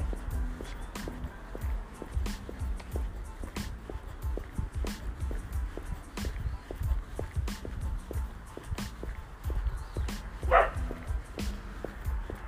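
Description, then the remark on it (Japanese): A dog barks, faint and intermittent, while steady footsteps crunch along outdoors at a walking pace as someone walks home along a road in a countryside residential area built on a former hill. One slightly louder bark-like cry comes near the end. “犬が鳴いてる”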